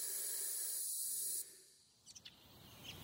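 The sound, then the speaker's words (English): A steady, airy hissing fills the first second and a half, then cuts off abruptly, leaving near-quiet broken by a few faint, brief chirps. “As you read the last word, the light goes off, and you only hear a hissing noise before you lose consciousness.”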